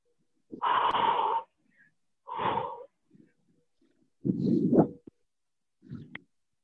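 human body sound, heavy panting

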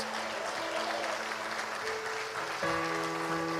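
crowd, audience applauding

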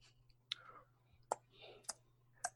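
sound effect, clock ticking sound effect

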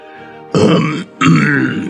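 human body sound, cough and throat clearing

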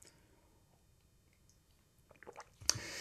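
human body sound, sipping and drinking water

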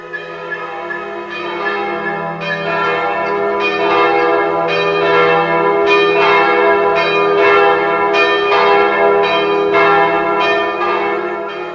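signal or alarm, old church bell ringing

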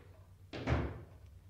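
household object, door being closed

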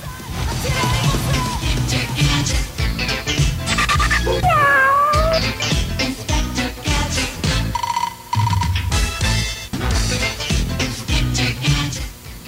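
animal, cat meowing

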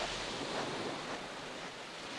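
nature, ocean waves

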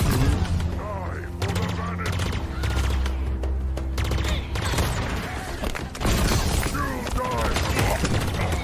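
sound effect, explosions and gunfire

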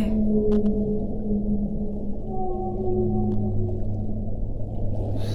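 animal, whale vocalization

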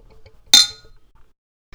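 household object, glasses clinking

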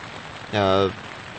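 nature, rain falling

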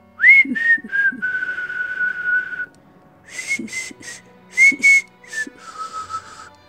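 human body sound, human whistling a tune

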